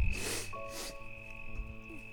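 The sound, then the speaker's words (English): Two quick sniffles through a congested nose, one right after the other, over a steady faint high-pitched tone in the background. “ah, still got the sniffles.”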